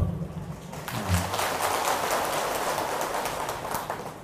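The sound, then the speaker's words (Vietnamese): An audience breaks into a round of applause in answer to a speaker's question about whether a poem was easy to understand, many hands clapping in a dense, crackling wash that builds within the first second and holds steady to the end, with no talking over it. “trả lời bằng miệng thì à, có nhiều người ngại nhưng một tràng vỗ tay thì cho thấy là phần lớn chúng ta hiểu được”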